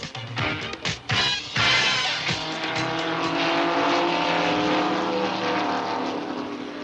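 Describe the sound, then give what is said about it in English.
A roar of racing engines fills the air, loud and continuous, with harmonic whines rising and sweeping as several Automobile Racing Club of America stock cars rush past at speed at Daytona International Speedway, Daytona Beach; no voices can be heard. “The sounds you hear in the background are the Midwestern stars of the Automobile Racing Club of America as they make their annual trek”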